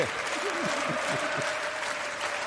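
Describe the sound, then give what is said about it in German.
A steady burst of applause from a group, dense and even throughout, with faint voices and cheers blending into the clapping. “mal kurz einen Applaus.”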